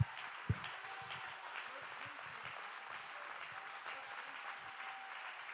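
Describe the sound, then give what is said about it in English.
A church audience applauds steadily in praise of the Lord, dense overlapping hand claps at moderate volume, with a faint murmur of voices underneath and a single sharp thump near the start. “Come on, let's give the Lord a hand clap of praise.”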